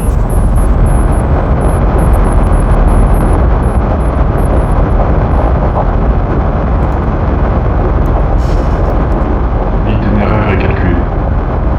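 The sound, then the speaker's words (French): A rocket's main engine ignites into a loud, continuous roar of liftoff, a dense rumbling wall of sound that holds steady throughout, with a thin high-pitched pulsing tone briefly above it at the start. “Moteur principal allumé. Moteur principal allumé. Tout est ok pour toi”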